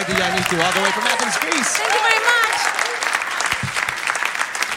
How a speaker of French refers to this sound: On va laisser les applaudissements.